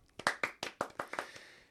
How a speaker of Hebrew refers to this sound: מגיע לה. מגיע עוד כפיים.